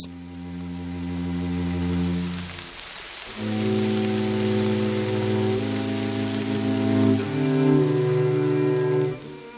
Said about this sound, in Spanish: Lluviecita, qué bonita estás.